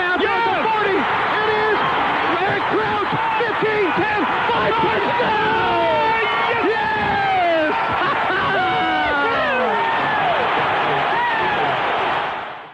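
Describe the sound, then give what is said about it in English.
A loud, sustained stadium crowd roar at a Nebraska Huskers versus Oklahoma football game fills the whole stretch while excited broadcast announcers shout over it during a reverse pass play, their voices rising and straining against the noise until it cuts off at the end. “you know it's good when you can't even hear what the announcers are saying yeah. anymore because they're just yeah. screaming.”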